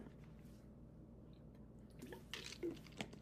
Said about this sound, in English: So what I want to start off with after I uh, take a sip of water here